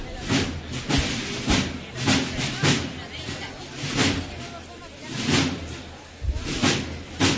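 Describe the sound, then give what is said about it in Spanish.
Bright, splashy cymbal crashes from a marching band ring out again and again in an uneven beat, loud, with a noisy outdoor wash and other band sounds filling the gaps between hits. “Suena el platillo, Marc marcha la banda del Mar Tejera, así que volvemos a disfrutar.”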